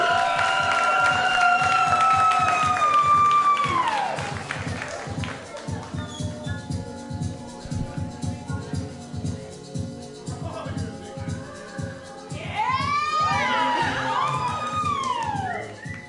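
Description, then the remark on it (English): A lively crowd at the Ice House cheers and applauds for comedian Lila Hart, with high whoops and whistles rising and falling over steady clapping; the noise swells again near the end, loud. “Give it up for Lila Hart. Let me hear you make some noise!”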